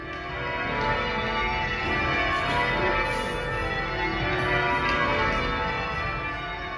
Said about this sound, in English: but then you have these other groups that just get together every tuesday to rehearse and every sunday to ring the bells and they have these crazy mathematical patterns and it's a whole society of ringing